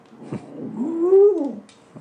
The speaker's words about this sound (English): I taught no. her how to howl, and since I've taught her how to howl, her barking's gotten worse.